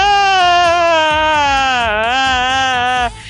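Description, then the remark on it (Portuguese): A voice imitates loud, sustained wailing sobs, acting out crying after falling down and sitting on the ground, a continuous exaggerated crying tone that wavers in pitch for about three seconds before cutting off abruptly. “Eu sentei no chão e comecei a chorar.”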